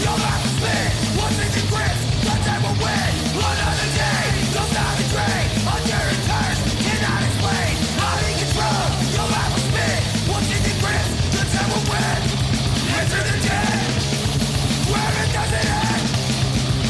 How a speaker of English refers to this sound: We have some crossover on our hands. some uh, hockey vocals.